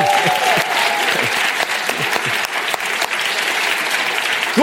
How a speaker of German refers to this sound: Nicht nur über das Kino, sondern im Moment übertragen wir mal den Teenie-Gottesdienst. Ein Tag tiefer, euch ebenfalls willkommen mit einem Applaus.